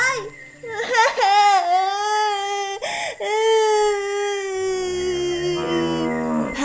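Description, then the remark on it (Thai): A child sitting by the roadside cries loudly in long, drawn-out wailing sobs that rise and fall in pitch, with a brief catch of breath midway before the crying resumes and trails off into whimpers. “เขาจึงได้แต่นั่งร้องไห้อยู่ที่ริมทาง”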